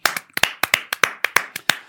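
Brief applause: about a dozen sharp, bright hand claps in a slightly uneven, quick rhythm, likely from just one or two people, with no voices.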